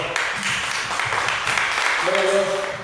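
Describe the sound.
An audience at a church service applauds to the Lord after a prayer, a steady, dense wash of clapping that lasts the whole stretch, and a sustained voice or tone rises over it toward the end.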